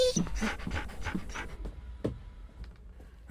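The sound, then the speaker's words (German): A dog pants in quick, rhythmic breathy huffs that fade after a second or so, leaving a few soft clicks and snuffles. “Geh weiter, da, mein Hund.”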